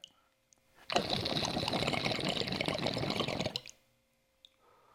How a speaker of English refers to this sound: Okay, so it's it's draining, but it could be a way cleaner drain. Like I said, if there was that little like glass Y or some sort of point.